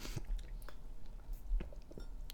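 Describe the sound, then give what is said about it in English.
Quiet, quick sipping of a slushy drink by a woman: wet, crackly slurps and small icy crunches come in short irregular bursts, with no one talking. “She started sipping again.”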